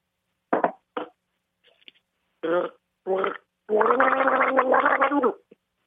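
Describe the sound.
A person imitates an electric kettle boiling water by gargling a mouthful of water: a few short bubbly bursts, then a long, steady gurgling rumble, loud, with no talking.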